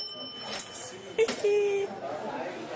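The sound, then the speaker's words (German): A small hand bell rings with a bright, metallic tone that lingers briefly, over a soft background of murmuring voices. “Da habe ich eine Glocke.”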